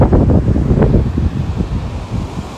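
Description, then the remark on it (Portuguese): Wind gusts steadily through bushes, a continuous rushing and rustling with rumbling buffeting on the microphone, fairly loud and unbroken with no voices; it is not raining. “O mato ali tá ventando.”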